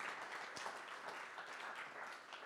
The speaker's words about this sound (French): Ben, j'aimerais juste qu'on puisse applaudir chacun qui sert le Seigneur, qui sert le royaume de Dieu. Merci, merci à chacun.